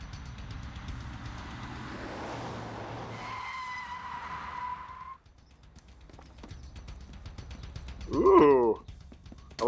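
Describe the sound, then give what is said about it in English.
A car chase plays out with rumbling engines and a high, wavering tire screech, followed by a brief lull and a sharp, rising skid squeal near the end, loud. “Ooh, Sentai car chase.”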